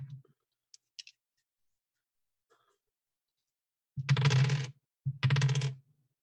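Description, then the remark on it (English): A few faint clicks, then two short clattering rattles of black dice being re-rolled across a tabletop, fairly loud, with no one talking. “So spending a willpower means that I can re-roll three black dice.”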